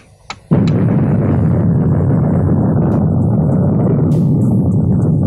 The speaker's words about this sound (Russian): Приближается час, когда будет осуществлен первый подземный ядерный взрыв на выброс для дела мира. Включен программный автомат. Идет отсчет времени. Осталось 5 секунд. 4, 3, 2, 1, 0.